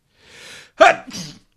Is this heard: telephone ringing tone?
no